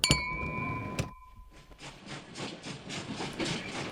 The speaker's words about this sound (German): der Zug hält gleich an.